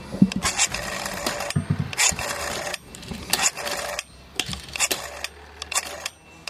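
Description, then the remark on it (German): A telephone number being dialed: a series of dry mechanical rattling bursts, each a few clicks and whirrs long, separated by short pauses, with no voices. “Wenn du dich da einmal verwählst, ne? Bist du am Arsch.”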